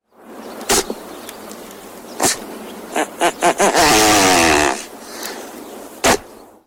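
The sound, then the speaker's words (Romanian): Outdoor ambience in the fields around the town of Salonta, with several short, sharp bursts, then a quick run of pulses leading into a sustained buzzing, rasping call lasting about a second, followed by one more isolated burst, made by great bustards in the mating season. No speech. “doar în teorie, pentru că în practică sunetul pe care l-ați auzit, nu tocmai cel mai plăcut din lume, este produs de dropii în perioada de împerechiere.”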